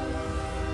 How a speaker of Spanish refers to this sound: ¡Ay, a viene otra vez el tren! ¡Órale, es el tren fantasma! ¡Ay, ay, ay! ¡Ay, ese fue el tren! El hermano del otro tren.